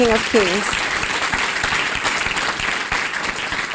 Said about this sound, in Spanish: Dele ese fuerte aplauso al Rey de Reyes.